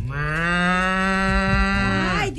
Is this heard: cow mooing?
yes